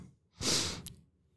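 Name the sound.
sneeze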